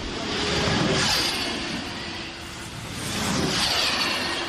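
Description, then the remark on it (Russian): An electric hypercar of 1013 horsepower weighing under a tonne, on a speed record run at Goodwood, heard from outside at full speed: a loud, dense roar of engine and wind that swells past twice, with no voices. “Это снаружи.”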